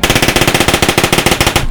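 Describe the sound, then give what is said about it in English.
A rapid, sustained burst of Tommy gun fire, roughly twenty sharp shots in an even rhythm, loud, stopping abruptly with no voices. “He grabs his Tommy gun and goes to just mow these people down.”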